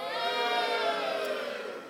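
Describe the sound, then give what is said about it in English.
Part of an audience, cast as the Philistines, cheers loudly on cue, many voices merging into a sustained, high-pitched roar that holds steady for nearly two seconds before easing off slightly at the end. “Give us a cheer, Philistines.”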